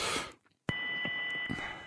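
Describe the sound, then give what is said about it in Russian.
A sudden loud click is followed by a steady, piercing high-pitched feedback whistle on a caller's telephone line during a radio call-in, with the caller near a radio receiver, holding a constant tone over muffled line noise until the end. “У, у меня такой свист в телефоне, что просто кошмар.”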